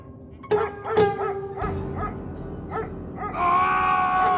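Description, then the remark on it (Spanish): Dogs bark sharply in a rapid, overlapping series of loud barks, intensifying as they bare their teeth, ending in a sustained high, strained whine or yelp, with no talking. “sus fieles amigos mostraron los colmillos e intensificaron sus ladridos.”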